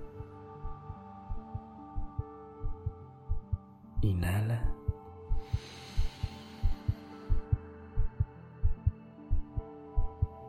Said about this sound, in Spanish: Sigue sintiendo los latidos de tu corazón.